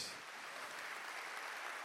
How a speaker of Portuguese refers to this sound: Aplauda ao Senhor nessa manhã, bem forte.